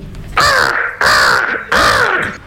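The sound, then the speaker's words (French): Three loud, harsh caws from a crow, evenly spaced, each a raspy burst with no voices present. “et vous, savez que c'était Ellie qui a été nourrie par les corbeaux.”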